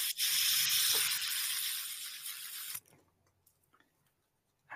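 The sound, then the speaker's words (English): A fidget spinner whirs, a loud, steady, hissing rush like running water that holds for a few seconds, then cuts off abruptly, leaving near silence. “That's a fidget spinner.”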